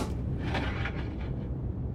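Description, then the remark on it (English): Cannon fire rolls in as a deep, sustained rumble with a few muffled bursts layered through it, steady and fairly loud for the full two seconds, with no voices. “A cannon!”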